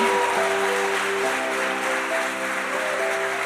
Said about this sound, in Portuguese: Dá uma salva tipo, de palmas para Jesus aí.